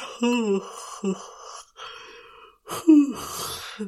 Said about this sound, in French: Euh, ben voilà, souvent, euh, la première chose, c'est oh, de bailler